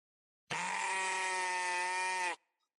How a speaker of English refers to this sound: sheep. Sheep.